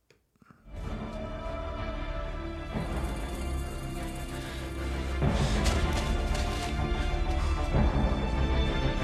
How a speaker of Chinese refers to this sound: 现在大家听到的是影片开场的一段经典配乐